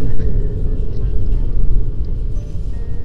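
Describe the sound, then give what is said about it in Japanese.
A steady, heavy low-frequency rumble inside a moving car, with the engine and road noise droning continuously and fairly loud and no clear voices. The car is heading to a station in Gifu, Japan, on a fine day, detouring to join a line of cars at a parking lot near the station. “さあ駅へ向かっていますまあ、ちょっとね駅だとあれなので駅の近くの駐車場にあ並んでる 駅の近くの駐車場に止めてはいお迎えに行こうと思っていますちょっと並んでいるなはいちょっと迂回して車列に並びたいと思います”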